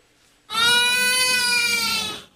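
A newborn baby lets out one long, loud wail that starts abruptly, holds steady for nearly two seconds, and then fades. It is close up, alone, with no talking.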